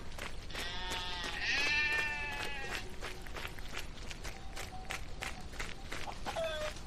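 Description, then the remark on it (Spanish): A sheep lets out a loud, wavering, drawn-out bleat near the start, then a shorter bleat near the end, amid scattered clattering and shuffling sounds. “Deja la oveja y vamos a ver a ese niño.”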